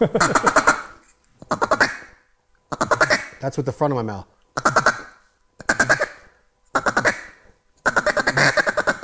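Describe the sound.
A string of about seven loud duck quacks blown on a single-reed duck call, coming in short evenly spaced bursts, with a brief laugh and a few spoken words between them.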